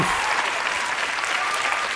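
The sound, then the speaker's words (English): A large crowd at the third annual Gamey Awards in Manhattan, Kansas, applauds loudly and steadily, dense clapping mixed with cheers and whoops, sustained at an even level for the full two seconds with no one speaking over it. “Man, the crowd is going nuts here in Manhattan, Kansas.”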